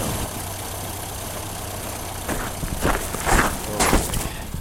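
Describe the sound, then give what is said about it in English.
A Jeep's 4-liter engine with a 5-speed: a steady, low engine drone idles throughout, joined in the second half by a few rougher surges and brief louder bursts, with no talking. “Oh, just listen to that 4 liter per under hood.”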